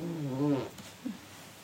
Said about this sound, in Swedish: Pruttar du? Japp. jag trodde... Jag tänkte sitta själv trodde inte det skulle höras.